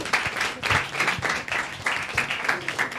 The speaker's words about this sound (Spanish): Pero bueno, canta participación, oye, de esa mesa. Esa mesa Un aplauso muy fuerte.